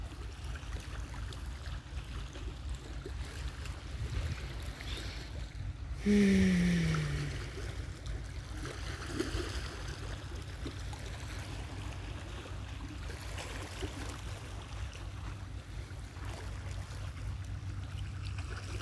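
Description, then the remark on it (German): A steady, soft rushing wash of tree leaves stirring in a light southwest wind fills the background throughout, with a brief louder tonal sound near the middle and no voices. “Wie so oft bei meinen Aufnahmen rauschen im Hintergrund die Blätter der Bäume im Wind.”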